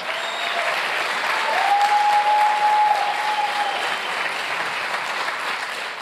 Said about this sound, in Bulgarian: О, ако ръкопляскаш, ръкопляскай, като че наистина го вярваш.